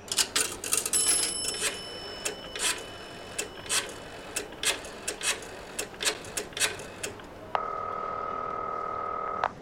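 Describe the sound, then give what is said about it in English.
A telephone next to the ticket office of a train station being dialed: a run of quick, irregular mechanical clicks and clacks, followed by a steady buzzing line tone that holds to the end. No one speaks. “You got a phone around here?”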